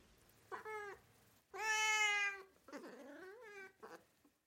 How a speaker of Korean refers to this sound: 고양이는 희은의 무릎 위에서 마지막으로 한 번 울음소리를 냈고 몸을 떨면서 천천히 숨을 내쉬더니 조용해졌다.